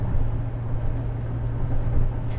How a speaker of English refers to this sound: Um, okay, we're picking up a little bit of speed, folks. You can probably hear it because this car is made of paper.